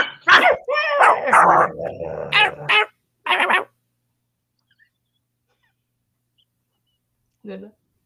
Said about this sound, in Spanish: En esos momentos, Ruth y Jim, desesperados, oyen a los perros muy cerca de ellos.